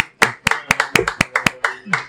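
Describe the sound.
An audience claps in a steady, even rhythm, about nine or ten sharp, crisp claps landing together in quick succession, with a faint murmur of voices underneath.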